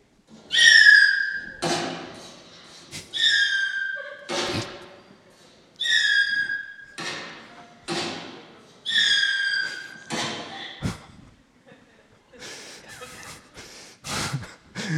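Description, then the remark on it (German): PET plastic bottles burst one after another as New Year's Eve bangers in the village of Eirach, a loose series of about ten hollow bangs and thumps, with shrill whistling squeals and hisses around each, with no talking. “Silvester ohne Feuerwerk und doch mit Böller ganz kreativ gefeiert. Keine Angst, die Flaschen sind PET-Flaschen, die hat man nachher eingesammelt und äh, bringt sie dann zurück.”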